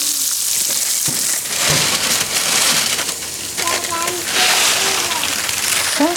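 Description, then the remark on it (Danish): Steady rain patters down in a dense, even hiss that fills the whole stretch, with faint voices or tones rising briefly beneath it. “Ja, nu begynder øhm. det der at øhm. regne.”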